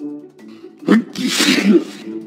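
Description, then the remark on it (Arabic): A single loud, exaggerated, very strong sneeze, a short gasping build-up followed by a forceful, breathy burst that trails off. “لكنني عطست عطسة قوية جدا ولن تصدقوا هدم بيت الخنزير المصنوع من العصيان الخشبية”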